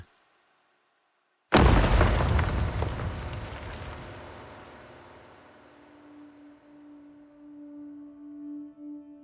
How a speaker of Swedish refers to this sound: Ett stort stenblock föll ner i det hårda underlaget och gav ifrån sig ett högt dån.